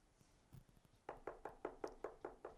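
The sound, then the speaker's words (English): A child's quick, steady series of about eight knocks on a door, evenly spaced, following a second of quiet room noise with no one speaking. “It's like you trying to take a bath and the child knocks at the door.”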